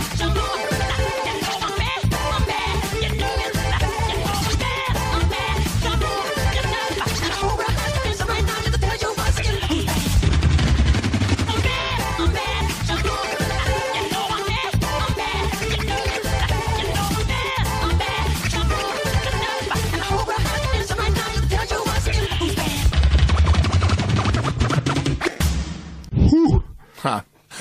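A loud, dense dance music mix played on Budapest Rádió pounds along with a steady driving beat and layered effects, playing continuously before abruptly cutting out in the final seconds.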